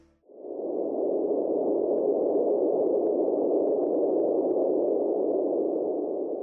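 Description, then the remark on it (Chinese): A steady underwater hydrophone signal recorded by an underwater acoustic monitoring station during the search for flight MH370, most likely caused by geological activity: a dense, unbroken low-to-mid rumbling hiss that fades in quickly and holds at an even, fairly loud level for several seconds, with no voices. “如果坠机的冲击力大到足以影响海洋的话，就有可能产生大量的噪音，并且可以被一种称为水听器的设备记录下来。”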